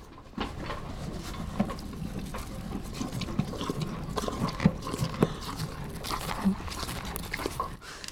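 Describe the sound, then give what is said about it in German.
A small horse chews and smacks while eating, with wet, irregular crunching and clicking sounds repeating steadily over a soft background rustle. “Hallo, kleines Pferd. Er schmatzt ein bisschen beim Essen, muss ich sagen.”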